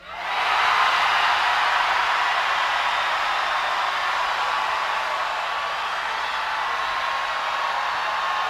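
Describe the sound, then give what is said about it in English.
A crowd screams, moans and groans all at once, blending into a loud, dense, steady roar that swells in quickly and holds for several seconds without a break. “We need a lot of screaming and moaning and groaning.”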